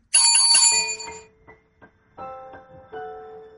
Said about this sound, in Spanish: ¿Se alcanza a escuchar mi campanita de impro? Perfecto.